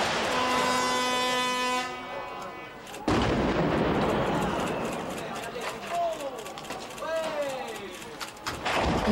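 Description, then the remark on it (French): A steady warning horn sounds, then a sudden loud explosive blast as a reinforced-concrete factory chimney in Pantin, France, is demolished in 1996 with barely 20 kilos of explosives, giving way to a long roaring rumble of collapse, with crowd voices and a few rising whistle-like tones. “Applaudit la cheminée tombée, les cloches de Pantin ont résonné, à peine 20 kilos d'explosifs pour des milliers de mètres cubes de béton armé et plus de 100 ans d'histoire industrielle de Pantin définitivement réduite en poussière.”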